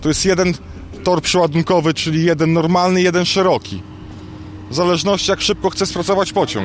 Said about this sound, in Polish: Hałas, który słyszycie w tle, to pracujące Rich Stackery. Podczas naszej wizyty cały czas trwał przeładunek.